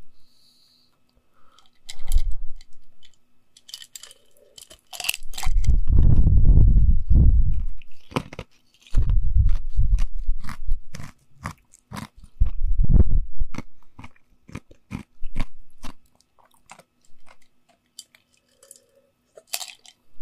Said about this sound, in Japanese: 氷を食う音とか入れてみようか。近づいて。